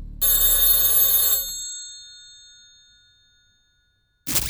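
An old-style telephone bell rings loudly in one sustained burst of just over a second, then its metallic tone slowly fades out before a new sound abruptly begins.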